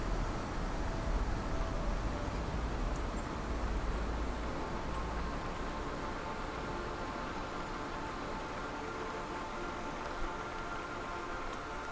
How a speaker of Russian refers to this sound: Шумит, как звук фена. Профи выключает фен.